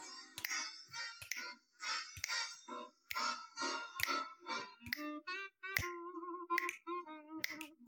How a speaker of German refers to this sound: Und nun, Stone Lag Army, brauche ich euch. Steigt ein. Schnippst mit.